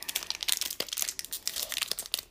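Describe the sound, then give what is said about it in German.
Crinkly foil wrapper of a Pokémon card pack being torn open, a steady run of sharp, bright crackles and rustles with a few louder snaps, and no voices. “Ja, mein Bruder wollte, dass wir eine Folge aufnehmen, wie wir sein Pokémon Pack öffnen.”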